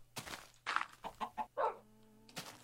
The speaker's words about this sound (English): I don't want to let the chicken out just in case he lays another egg.